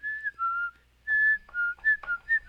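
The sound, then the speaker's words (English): Someone whistles a short melody of clear, sustained notes that step up and down in pitch, with brief gaps between phrases, fairly soft, no talking. “trying to whistle it instantly into my cell phone if I'm not at home”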